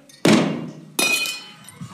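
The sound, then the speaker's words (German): A clay jug shatters on the floor with a heavy crash, followed about a second later by a second sharp break as shards scatter and clatter briefly. No one speaks. “mit in Nacht, wenn die Wachen wechseln, um 12 Uhr, nehmt ihr Krüge, schlägt es an Boden und nehmt die Fackeln führen.”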